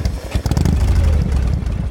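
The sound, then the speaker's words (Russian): A motorcycle engine rumbles loudly and steadily, a deep throbbing growl with mechanical clatter running through the whole short stretch, no voices present. “Э, Рев мотоцикла,”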